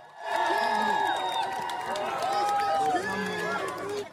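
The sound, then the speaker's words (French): A large crowd at Buckingham Palace in London cheers continuously in the open air as King Charles III returns, with overlapping shouts and voices, scattered applause and a high whistle or two rising above the steady roar. “Peu avant 14 h il fait son retour au palais de Buckingham sous les ovations.”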